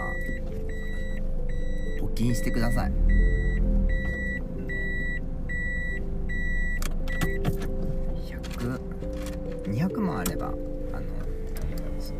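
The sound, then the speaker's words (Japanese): A car backs into the parking space of a house, its engine humming low while a steady reversing beep repeats for several seconds and then stops; a person talks over it. “バックの時間です日々悩まされていますこの家の駐車場のバック早くねバックモニターがある車が欲しい”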